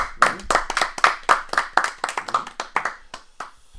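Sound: applause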